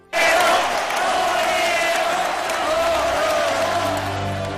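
A large crowd bursts into loud, sustained applause and cheering, a dense roar of clapping and shouts that starts abruptly and holds steady throughout, full and unbroken.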